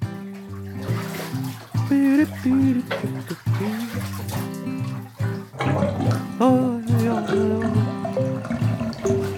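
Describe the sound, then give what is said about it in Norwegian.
Bath water sloshes and splashes steadily throughout as Pivi scrubs and washes his feathers in the bathroom, heard beneath a bright, continuous musical accompaniment. “Pivi er ferdig med å skrubbe og vaske fjærene sine.”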